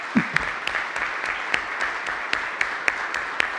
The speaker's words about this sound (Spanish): Bueno, pues entonces la despedimos con un gran aplauso. Doctora, le agradecemos infinitamente el tiempo.